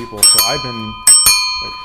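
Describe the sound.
A Delft blue bicycle bell rings twice, each bright metallic ding ringing out and slowly fading, while a person talks over the first ring.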